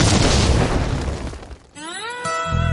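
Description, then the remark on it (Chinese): A loud, roaring explosion sound effect bursts out and rumbles for over a second as it decays, then gives way to a bright tonal musical sting with steady, ringing notes, introducing a show's 'Life Big Bang' (生活大爆炸) segment. “下面马上进入到今天的生活大爆炸环节， 瞬间爆炸。”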